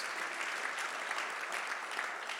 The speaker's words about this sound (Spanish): Reciban este aplauso para ustedes.